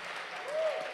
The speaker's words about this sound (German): Tausend Dank, dem dürft ihr auch mal einen Applaus geben.